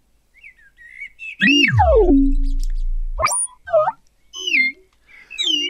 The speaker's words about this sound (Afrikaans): Wend dit op, sê hy vir sy gesant. Die gesant wend die meganiese voël op. Die voël se stert beweeg op en af en dit speel 'n lied